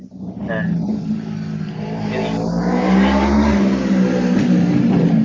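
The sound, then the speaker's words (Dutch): A loud, big motorcycle roars past, its engine droning steadily for several seconds and swelling briefly in pitch and volume partway through. “Ja, ik kom de dikke motor langs hier.”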